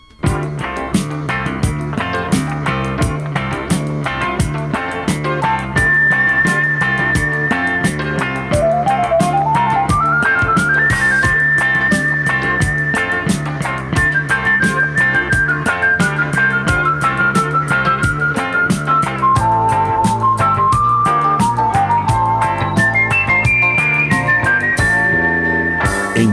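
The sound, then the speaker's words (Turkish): A short stretch of steady, full-band music plays continuously with no talking, a bright whistle-like melody line gliding up and then winding down over a rhythmic backing. “Evet kısacık bir müzikle kapayalım bu haftayı.”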